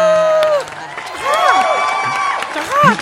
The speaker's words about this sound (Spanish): Pedimos un muy fuerte aplauso, gritos, palmas, chajáis y demás es para recibir a